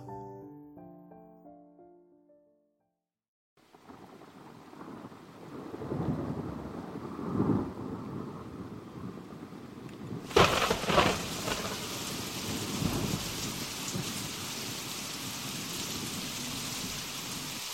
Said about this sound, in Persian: دهم جولای سال 1856 ساعت دوازده شب تو هوایی به شدت طوفانی و در حالی که صدای رعد و برق گوشها رو کر می کرد نیکولا تسلا تو روستای اسمیلجان کرواسی متولد شد